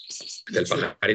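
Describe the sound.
A small pet bird chirps playfully with a high, thin whistling call, followed by someone talking over it and a brief burst of voice at the end.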